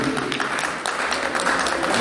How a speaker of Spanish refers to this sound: Muchísimas gracias por ese aplauso de corazón